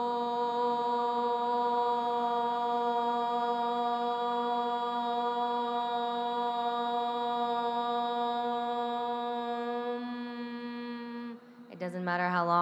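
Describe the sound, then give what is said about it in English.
A single deep, steady chanted om is held for about eleven seconds at an even, fairly loud level, then fades and breaks into a brief wavering vocal sound at the end. “expansion of your belly as you breathe in and the vibration in your chest as you om. If you don't feel the vibration in your chest, please om louder.”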